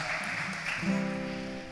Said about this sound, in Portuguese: Vamos aplaudir mais uma vez, uma semana com Nossa Senhora.